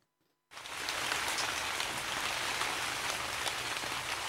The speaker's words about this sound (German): Yes, Regen, der die Erde äh, nass macht, der alles wieder zum Wachsen bringt, der sanft tröpfelt, wo die Erde aufsaugen kann und alles wachsen.